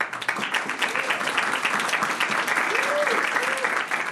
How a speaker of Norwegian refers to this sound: Dere mener at dere klapper med hendene og ler like bra som det norsktalende publikummet, og ser derfor på dette som en urettferdig løsning.